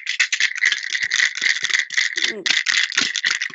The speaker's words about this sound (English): and if you can provide even maybe be creative enough to find multiple sources of sound um, like like here, now I've got this pill bottle that I can shake along